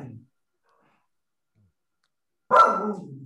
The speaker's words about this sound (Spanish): Pobrecito. Eh, está, está, ladrando perretes en la calle. Pobrecito.